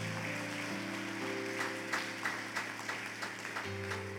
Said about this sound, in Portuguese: Aleluia, aplauda a esse Deus.